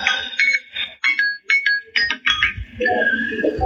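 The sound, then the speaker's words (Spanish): A five-minute timer alarm rings loudly in a quick series of bright electronic beeps, then settles into a steadier, sustained chiming tone toward the end. “Ahí suena la alarma de cinco minutos.”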